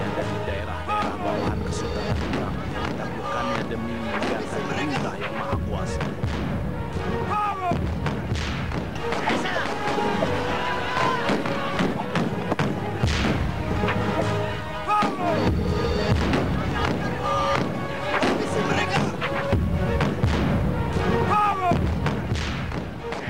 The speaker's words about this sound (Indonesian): peluru meriam menyasar menghantam kapal yang mengakibatkan gugurnya Adipati Yunus